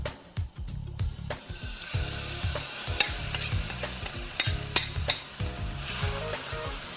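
Shrimp sizzle and crackle in hot corn oil in a frying pan over raised heat, a steady dense hiss with sharp pops and occasional scrapes as they are stirred, fairly loud, no voices.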